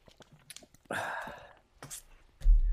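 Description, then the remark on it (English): A noisy slurp of kava from a cup lasting about half a second, followed by faint mouth and swallowing sounds and a low thump near the end, like a cup being set down. “the kava that I drink on this and every episode”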